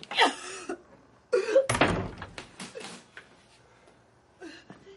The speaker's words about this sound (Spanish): Denver sale del aseo y cierra la puerta.